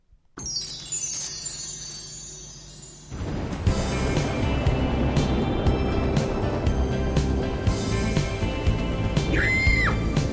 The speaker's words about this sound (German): Da wird ja am Anfang geschrien und eine Frau kreischt und da lacht ein Mann.